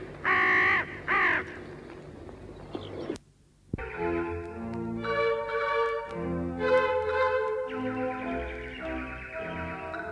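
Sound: raven cawing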